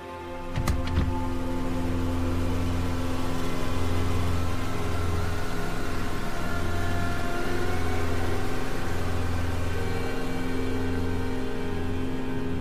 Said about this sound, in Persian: ماشین توی جاده تاریک حرکت میکنه